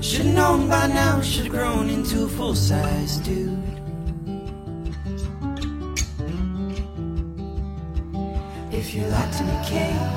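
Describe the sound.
A pop-rock song plays with a male singer's vocals over steady drums, bass and guitars, loud and full throughout, the band pulling back briefly midway before the beat returns.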